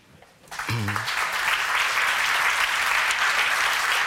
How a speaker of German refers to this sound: Applaus